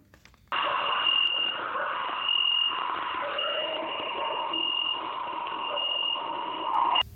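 A dense, shrill drone of cicadas starts abruptly and holds steady and loud for several seconds, a continuous buzzing chorus with no pauses and no voices.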